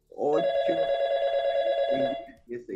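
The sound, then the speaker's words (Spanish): A telephone rings with an incoming call, one long, steady electronic tone lasting about two seconds, loud, while voices talk faintly underneath and continue briefly after it stops. “Así es que, bueno, vamos a atender una llamada.”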